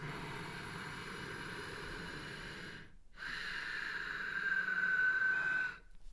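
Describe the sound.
Two long hissing breaths of ujjayi (Darth Vader) breathing, drawn in and out through the nostrils with the back of the throat constricted, one and then another after a brief pause, the second louder and slightly whistling, with no talking.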